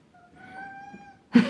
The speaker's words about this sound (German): Jetzt Katze ist die, Katze, ist die Katze ist wieder da und es hat nicht auf dich gehört und es ist nicht vor die Tür gegangen.